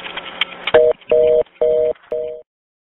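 A telephone line tone: a short burst of crackly static, then four steady, evenly spaced beeps in a buzzy mid-pitched double tone, each about a third of a second, with no talking.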